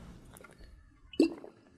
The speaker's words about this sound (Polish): Czekaj, miałem napić łyka wody i zapomniałem.